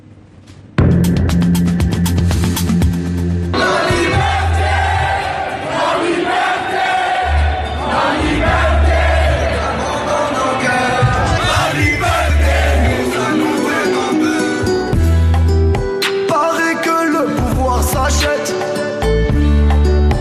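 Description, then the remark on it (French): A large protest crowd at a demonstration in Algeria sings a song together in unison, loud, with many voices blending over a steady, rhythmic swell that carries on without pause. “on écoute même la foule qui chante cette chanson.”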